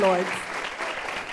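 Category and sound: crowd, audience applauding loudly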